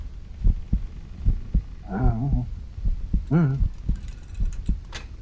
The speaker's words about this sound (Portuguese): E vocês escutam um barulho do coração dele.